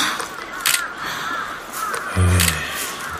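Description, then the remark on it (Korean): A flock of crows caws as it flies past over a residential neighbourhood, wings flapping, over a steady outdoor background; their harsh calls overlap irregularly, with one louder caw cutting in near the end. “빌어먹을 천놈의 까마귀.”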